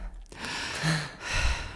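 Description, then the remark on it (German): A long, deep breath drawn in, a steady airy rush lasting over a second with a brief swell partway through, and no talking. “Wir atmen nochmal ein.”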